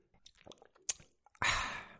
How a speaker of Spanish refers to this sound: Aquí viene trago de agua que vosotros no vais a percibir.